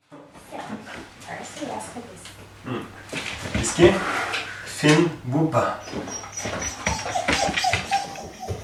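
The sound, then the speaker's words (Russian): A border collie named Whisky from Bergen, Norway, whimpers and gives short excited yips while carrying out its owner's command, going to another room to fetch one of 70 toys whose names it knows, with a person's voice speaking commands over the scuffling and rustling of movement. “Вы слышите, как собака, бордер-колли по кличке Виски из города Берген в Норвегии, выполняет команду хозяина.”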